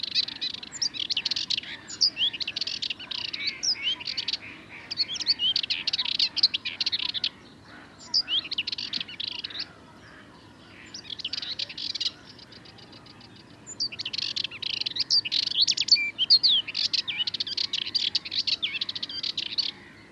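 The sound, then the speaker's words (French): A Sardinian warbler sings in rapid, scratchy chattering bursts with brief pauses, loud, while other waking birds call faintly in the background. No one speaks. “Une Fauvette mélanocéphale”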